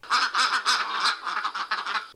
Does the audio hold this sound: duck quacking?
yes